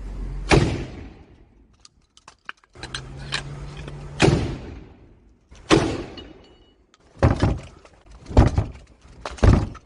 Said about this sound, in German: Der Attentäter von Halle versucht ein letztes Mal durch die Synagogentür einzudringen. Dazu feuert er noch dreimal mit seiner Schrotflinte auf das dunkelbraune Holz und tritt mit voller Wucht dagegen.